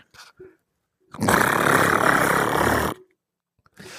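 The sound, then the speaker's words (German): A voice imitates loud chirping crickets with a harsh, continuous buzzing rasp that lasts about two seconds, loud, framed by brief vocal sounds before and after. “Es klingt nach einem Kompressor, aber es sind Grillen.”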